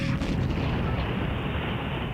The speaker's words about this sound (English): Prêt pour le compte à rebours 5, 4, 3, 2, 1, ignition.